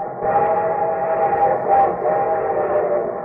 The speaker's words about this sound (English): And here comes our star studded show train.